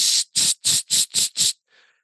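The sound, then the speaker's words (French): A voice imitates a can of gold spray paint, making six quick, evenly spaced hissing bursts, followed by a faint, breathy trailing sound. “Là, imagine un tas de merde, un gros tas de merde fumant sur lequel on met de la peinture or en canette.”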